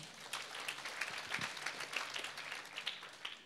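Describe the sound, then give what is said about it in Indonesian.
Steady applause from a crowd clapping for God during a sermon, many hands clapping in a dense, continuous patter for a few seconds without talk over it. “Boleh tepuk tangan dulu buat Tuhan.”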